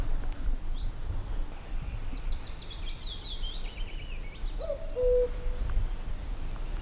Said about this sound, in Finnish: Käki innostuu uudestaan, mutta pitää taas taukoa mökin nurkalta